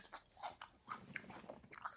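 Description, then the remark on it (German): Crunchy biting and chewing of a thick piece of raw ginger, a series of sharp crisp crunches spread over two seconds, with no talking. “Will ich immer auch ein dickes Stück abbeißen. Und ich erkläre dir jetzt trotz, dass ich abgebissen habe, ohne das Gesicht zu verziehen, warum.”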